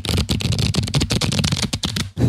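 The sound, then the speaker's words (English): A deck of cards being shuffled, a rapid flurry of crisp riffling flicks and papery rustling that runs continuously for a couple of seconds, with no voices over it. “let me shuffle these”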